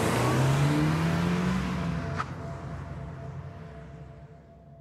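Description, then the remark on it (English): A car parked across the street starts; its engine revs loudly, the tone rising as it accelerates, then gradually fades as the car drives off. No voices. “Connor ran to his parked car across the street and didn't even so much as turn and look back, no matter how much I called for him.”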